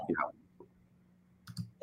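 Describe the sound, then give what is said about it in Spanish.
A computer mouse clicks sharply near the end as someone clicks to try to get in, after a quiet stretch with a faint low hum, following a brief burst of voice at the start. “Déjame, déjame darle clic a ver si entramos.”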